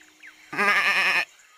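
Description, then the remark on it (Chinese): A single wavering bleat from a goat stuck in a thorn bush, loud and nasal with a quavering tremble, lasting under a second against a quiet background. “快看呐，那山羊卡在刺丛里面出不来了。”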